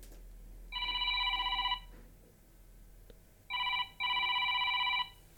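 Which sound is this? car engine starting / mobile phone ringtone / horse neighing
mobile phone ringtone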